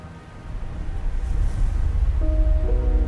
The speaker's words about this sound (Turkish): Kayalardan aşağıya nehir gümbürtüyle akıyor.